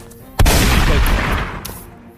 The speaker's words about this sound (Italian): Esplodi un colpo dal tuo fucile.